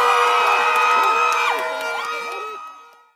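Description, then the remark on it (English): A large crowd cheers loudly on Wednesday night after incumbent Dwayne Seymour was re-elected for Bodden Town East in the Cayman election, with whoops, shouts and high whistles rising over a dense roar of voices and clapping that gradually fades toward the end. “A huge crowd Wednesday night erupting with applause after incumbent Dwayne Seymour was re-elected for the Bodden Town East.”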